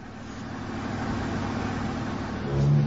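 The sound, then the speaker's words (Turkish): A taxi drives along in traffic, following a red car ahead; its engine and road noise form a steady rumble that swells slightly near the end as the motor revs up. “Şoför efendi. öndeki şu kırmızı arabayı takip et.”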